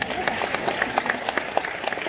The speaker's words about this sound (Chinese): 我们给爱多美一个掌声，好吗？